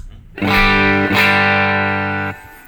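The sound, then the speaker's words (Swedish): A loud, distorted electric guitar chord, played through a 50B broadcast-variant pickup, rings out, is struck again about a second later, and sustains before being cut off, with no voices. “Det här är alltså då 50B, eh, broadcast-varianten.”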